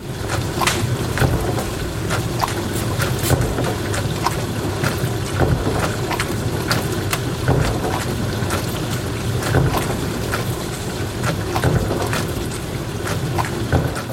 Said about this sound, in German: Und dieses Geräusch wurde dir präsentiert von Spülmaschine. So spritzig, so platsch. Hm, Spülmaschine.